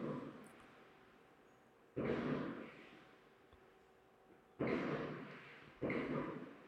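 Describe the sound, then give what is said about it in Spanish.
Three fireworks explosions in the distance in Panama boom one after another, each a muffled blast trailing off into a long echoing rumble, with quiet background noise in between and no voices. “seguro escuchan los fuegos artificiales.”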